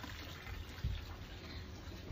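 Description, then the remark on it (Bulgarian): Water from an open-air shower at a villa, used after coming from the sea, runs in a steady, even hiss, fairly soft and continuous throughout, with a faint low rumble underneath and no voices. “Тук винаги има ето такива бани на открито, където човек, когато дойде от морето, може да си вземе едно душче.”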